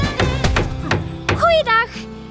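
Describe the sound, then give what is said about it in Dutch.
Four sharp, loud hammer blows on a tent peg ring out at an uneven pace as a tent is being pitched, followed by a brief whistling, voice-like sound. “Het klinkt wel als hamergeklop. Daar, daar wordt een tent opgezet.”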